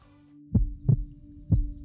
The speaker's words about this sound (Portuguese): A boca fica seca, a palma da mão começa a suar, o coração acelera, a respiração fica ofegante, o corpo todo contraído e eu chego a sentir um arrepio na base da espinha.